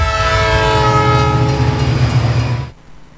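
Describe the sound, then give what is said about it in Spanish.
A train horn blares in a long, steady blast over the heavy rumble of a train passing through a city, loud, then cuts off abruptly near the end. No one speaks. “El tren es tan grande que se ve y su paso por la ciudad se escucha.”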